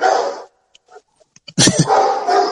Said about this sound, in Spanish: No, mi hijo, eso fue un perro que pasó por enfrente.